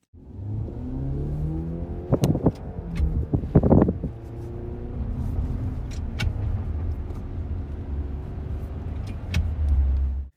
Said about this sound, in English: there's a video of this guy driving around for 45 seconds, shifting like a normal stick shift car, but it's like adding noise